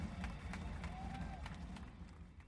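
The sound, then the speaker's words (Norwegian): A concert crowd cheers and claps, with scattered sharp handclaps over a dense, rumbling roar of voices, steady throughout and heard from within the audience. “Publikum er i ekstase.”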